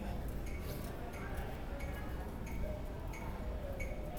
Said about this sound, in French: Deuxième hypothèse pour euh, le bar Levox. On entend une espèce de clickbox, là, une espèce de métronome, boîte de bois sonne.